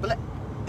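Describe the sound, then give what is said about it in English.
A single short, sharp sneeze, a quick burst over a low background rumble, with a faint voiced sound trailing at the end. “Bless you”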